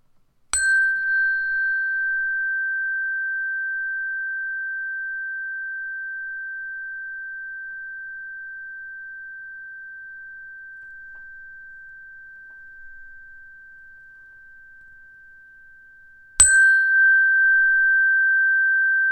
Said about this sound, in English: I'm now going to add a sound to your space, the sound of a bell, and I want you to listen to the bell and listen to how it sounds and let it enter your body and flow over you.